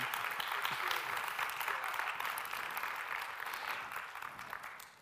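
audience clapping hands

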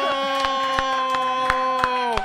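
weak applause

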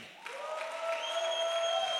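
audience applauding the musicians

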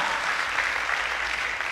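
audience applause

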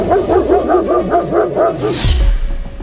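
dogs barking

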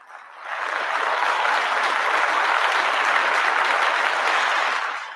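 applause sound effect

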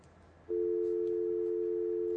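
telephone busy tone

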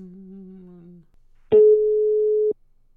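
phone line busy tone

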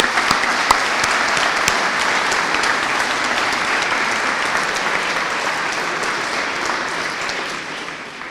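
audience applauding

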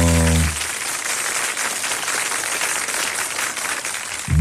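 applause

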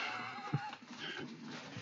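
horse neighing

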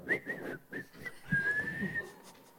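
person whistling

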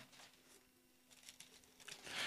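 bible pages being turned

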